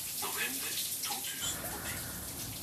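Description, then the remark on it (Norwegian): Running tap water splashes steadily while dishes are washed at home in an apartment on a Tuesday morning by someone listening to an audiobook, with faint clinks and a soft voice murmuring in the background, continuous throughout. “Mens hun tar oppvasken og hører på lydbok hjemme i leiligheten”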